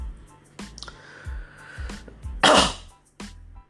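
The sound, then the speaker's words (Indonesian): A few short, harsh coughs come at irregular intervals, with one louder, longer cough near the end. A low hum runs underneath and no one speaks. “sorry batuk batuk batuk anda batuk”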